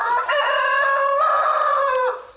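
A rooster crows once, loud, a long sustained cock-a-doodle-doo with a brief hitch near the start and a falling tail at the end, with no other sounds.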